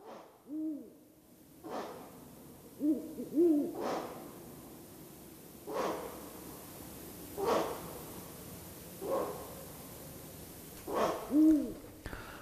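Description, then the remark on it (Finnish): A ural owl gives a series of low, hollow hoots at irregular intervals, mixed with short breathy huffs. The calls are moderately loud and there is no talking. “Luontosuomen pöllöiltä jatkaa Virro Pöllön puhinalla.”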